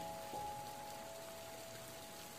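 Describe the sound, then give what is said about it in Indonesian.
Soft, steady patter of light rain drizzling onto the ground, a quiet continuous hiss with faint droplet detail and a thin sustained tone humming underneath. “Rinai hujan membasahi permukaan bumi”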